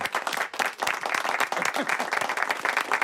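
A crowd applauding steadily, dense overlapping hand claps forming a continuous, fairly loud patter with no voices standing out.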